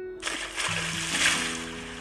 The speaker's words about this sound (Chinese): 春天来了，青蛙妈妈从冬眠中睡醒了。它跳进池塘，